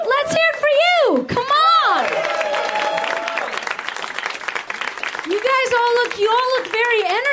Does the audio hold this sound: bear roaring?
no